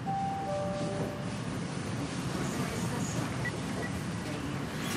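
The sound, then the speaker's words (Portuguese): A train rumbles steadily along the rails during a train ride, a continuous loud low roar with rattling and a few thin high squeals from the wheels early on. “Mas outras tantas histórias vão aparecer pela primeira vez aqui, como essa volta no trem.”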